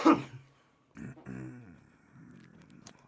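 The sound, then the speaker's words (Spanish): A sharp cough opens, followed after a short pause by a rough, voiced throat clearing that rumbles on for a moment before trailing off into quieter breathy sounds. “Como si la semana pasada no hubiera estado tose y tose”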